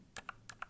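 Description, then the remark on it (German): Two quiet presses on silent, lubed mechanical keyboard switches, each a soft muffled thock followed by a lighter release click, with no talking. “Also, hier, ich glaube, die sind loot und sind auch silent.”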